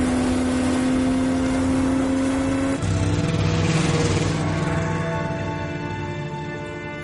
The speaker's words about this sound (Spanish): Ahora Patrick atraviesa el paisaje blanco de la ciudad con su moto.